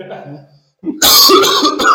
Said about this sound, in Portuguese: Tô com a garganta inflamada. Vem a vontade de tossir.